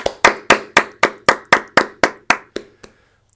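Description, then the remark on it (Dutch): A short round of applause welcoming a co-host, made of about eleven crisp, evenly spaced hand claps in a quick steady rhythm, fading and slowing slightly at the end, with no one talking. “Maar eerst heet ik natuurlijk mijn co-host weer van harte welkom met een warm applaus.”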